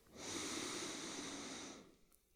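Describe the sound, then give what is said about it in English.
A single long, steady, cleansing inhalation through the nose, airy, lasting under two seconds with a soft hissing rush before it fades away. No talking. “So, breathing in through the nose, you can fill the body all the way up.”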